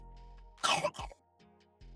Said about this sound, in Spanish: Ay, que tos.